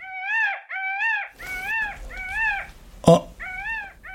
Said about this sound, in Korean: 아니, 공작새 울음소리가 왜 이래? 뭔 일 있나? 나는 수컷 공작의 유별난 울음소리에 깜짝 놀라 마당으로 뛰쳐나가서 지붕을 올려다보았다.